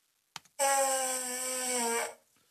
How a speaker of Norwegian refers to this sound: Dette er i hvert fall den fisen jeg har brukt i synten. Så skal jeg fortelle litt hvordan jeg har lagd den her. Vi bare hører det, eh, den fisen her. Ren fis. Eh, noe sånn halv ja, Klokka fem om morgenen en gang.